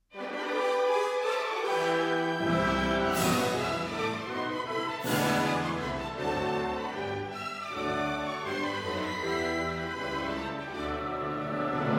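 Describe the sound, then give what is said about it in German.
Full, loud orchestral music from an opera, the opening of one of its parts, with sustained brass and strings, swelling into bright climaxes over a steady low foundation, playing continuously with no voices. “Und dann hören sie zum Beispiel auch solche Musik von Wagner komponiert. So beginnt ein Teil der Oper Lohengrin.”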